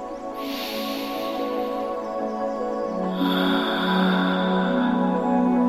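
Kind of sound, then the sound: human body sound, deep breath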